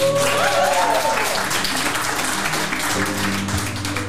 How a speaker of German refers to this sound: Ja, jetzt müssen wir auch das Publikum entscheiden. Also Wer habe... ist für den Will Smith? Ja, klatschen für den Will Smith, wer dafür ist, okay.